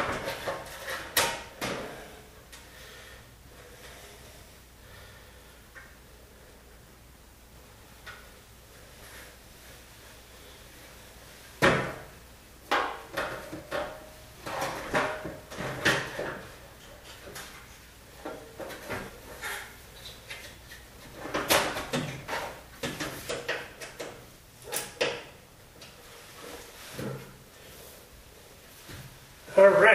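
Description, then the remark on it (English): The panel that a door goes on is fitted and secured, with irregular wooden clunks, knocks and rattles that come in bursts and pause against a quiet background. “panel that the door goes on is finally secured.”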